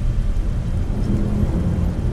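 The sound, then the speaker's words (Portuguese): Heavy rain pours down steadily in a thunderstorm, with a deep rolling rumble underneath, loud for the whole stretch and no voices. “no meio da tempestade, começou a acelerar.”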